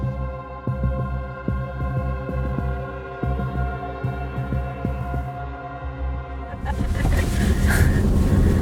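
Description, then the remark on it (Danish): A car's steady engine hum inside the cabin, with a series of dull thumps and jolts as it rolls over newly built speed bumps, then a louder, rougher road rumble toward the end. “Der er da godt nok også lige blevet lavet nogle fartikaner her.”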